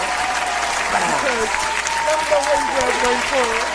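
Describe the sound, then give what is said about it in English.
An audience breaks into steady, dense applause for someone who is graduating, holding strong for about four seconds, with scattered voices and cheers rising over the clapping. “Which you got to give a clap for”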